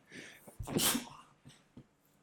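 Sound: sneeze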